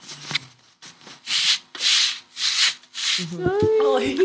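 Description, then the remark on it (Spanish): An imitation of an old man's slippers dragged across the ground as he shuffles out to the patio: five or six steady, rhythmic scraping swishes, fairly loud, followed by a brief voiced sound at the end. “las conocen como pantuflas también, pero son de esas como eh, zapatitos que uno usa para levantarse de la cama. Y él siempre andaba con esas y ah, salía al patio y como ya estaba viejito y todo eso, eh, arrastraba los pies y hacía como un sonido así.”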